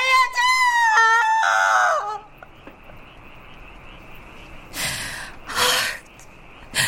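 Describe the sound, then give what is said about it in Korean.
A pastor's wife wails and screams in anguish for about two seconds, her voice rising and breaking in strained, tonal cries, followed by a quiet stretch with two brief rushes of noise. “무슨의 귀에 목사댁의 울부짖음이 들리는 듯하다.”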